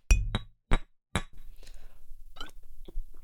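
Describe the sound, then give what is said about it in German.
Glasses clink together in a toast: four sharp, bright clinks in quick succession, followed by softer glassy rattles and handling noise. “einmal anstoßen auf äh, Jamie Sex Topmodel”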